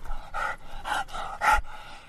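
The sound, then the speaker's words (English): A light brown pit bull terrier mix dog with four white legs and a square head pants, with four or five quick, breathy huffs in a steady rhythm and no one speaking. “Adria brings out one more dog. He's a light brown pit bull terrier mix”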